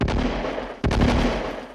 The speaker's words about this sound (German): Eine Bauernhochzeit im oberbayerischen Berchtesgaden beginnt morgens um vier mit Böllerschüssen vor dem Haus der Braut.